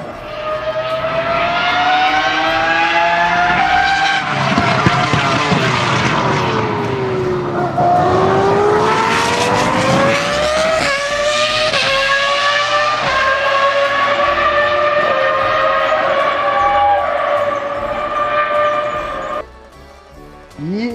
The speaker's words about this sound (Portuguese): O que me lembra a Fórmula 1 é esse som desses carros aí que são V12, que é aquele som que faz muito barulho.